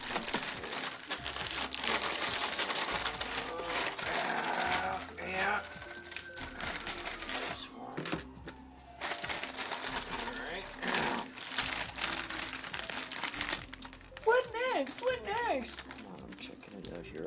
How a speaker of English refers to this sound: And now we take you to a kitchen in Los Angeles, California. Hey, I think I'll eat a beef and bean chimichanga. Looks like a great idea. microwave. Looks like we removed the chimichanga from the wrapper.